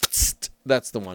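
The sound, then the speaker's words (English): A voice mimics a can being cracked open: a sharp hissing burst like escaping fizz, then a shorter puff, fairly loud, followed by a brief spoken remark. “And that that is the sound of cracking a, a can open of something.”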